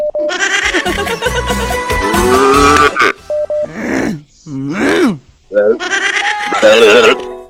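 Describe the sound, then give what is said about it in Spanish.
A sheep bleats several times, loud, quavering calls one after another, with brief pauses between them and some background noise underneath. “Oveja ya aparece.”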